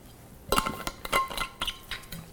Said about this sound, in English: And let me drink some water here uh, before we get going with this story that I'm about to tell.